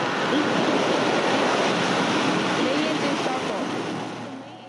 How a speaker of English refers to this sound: You are listening to the launch of an H 2A rocket back in September from Tanegashima Space Center on Tanegashima Island in Kagoshima Prefecture.